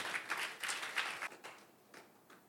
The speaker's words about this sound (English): Clap, clap, clap for them. They are good people.